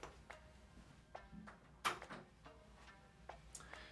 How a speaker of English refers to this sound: So yeah, give me one second. I'm gonna lock the door.